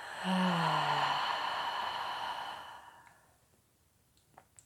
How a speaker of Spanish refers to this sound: Vas a inhalar profundo por tu nariz. Contener la respiración. Y lento por tu boca exhala.